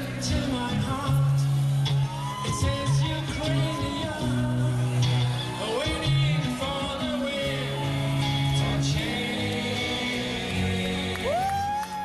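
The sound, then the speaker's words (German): Live rock music from a band's residency show at the Planet Hollywood casino in Las Vegas: a singer's sustained, gliding notes over a full band, loud and continuous, with a roomy sound and possible faint crowd noise beneath. “… spielen ja zurzeit ihre großen Residency-Shows im Casino Planet Hollywood in Las Vegas”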